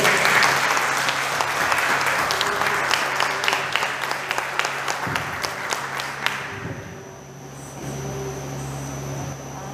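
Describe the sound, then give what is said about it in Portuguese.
An audience at a worship service applauds the King of Glory in a dense, steady wash of many hands clapping for about six seconds, then the clapping fades out, leaving a low hum and quiet background. “aplaudo, o Rei da Glória.”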